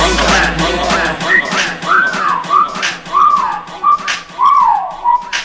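A person whistles at a woman, a quick run of short, swooping notes that rise and fall, repeated about six times, over a faint noisy background with no talking.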